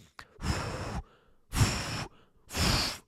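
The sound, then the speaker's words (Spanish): Three long, loud gusts of breath blown straight into a microphone while recording a mock weather report, each lasting about half a second to a second with short pauses, roaring and windy like a mouth imitating the wind of an approaching tornado. “Y yo le estaba grabando y le soplaba el micrófono, le hacía”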